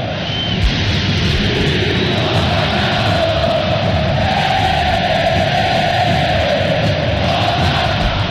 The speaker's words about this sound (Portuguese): Torcida do Galo cantando na Independência. Parece que eu ouço uma orquestra tocando.